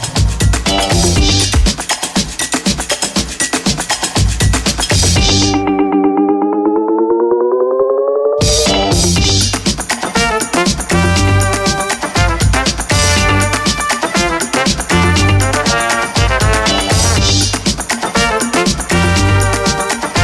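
Loud electronic pop track with a dense, driving beat and bright synths. Midway the beat drops out for a few seconds to a lone rising synth tone, then the full track slams back in.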